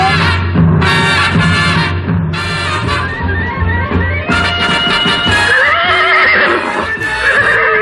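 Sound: horse neighing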